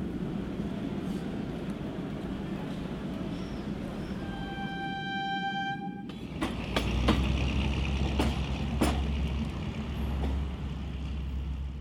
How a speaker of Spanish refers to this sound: Muy temprano tomé el tren que debía conducirme a la capital de la República.